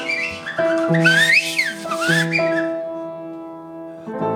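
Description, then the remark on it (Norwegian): A person sitting and whistling for bottles whistles a short, sliding tune with quick rising and falling glides over steady sustained tones, clear, lasting a few seconds with no talking. “Jeg sitter her og plystrer etter flasker.”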